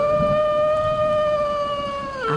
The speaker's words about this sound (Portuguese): Parece um lobisomem. Ele vem se aproximando, fazendo barulhos horríveis, mostrando os seus dentões e chegando mais perto, mais perto. Que medo!